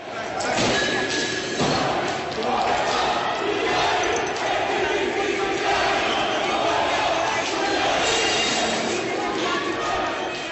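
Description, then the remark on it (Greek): A loud, dense crowd roars and shouts continuously, with scattered thumps and bangs breaking through the steady wall of voices, like an unruly mob in unrest; these riot sounds were inserted into a doctored video of an incident. “Μετά βγαίνει ένα βίντεο του περιστατικού το οποίο είναι παραποιημένο γιατί έχουν τοποθετηθεί μέσα στο βίντεο ήχοι εξέγερσης που μάλιστα μετά από χρόνια υπάρχει και η παραδοχή ότι αυτή η παραποίηση πράγματι συνέβη”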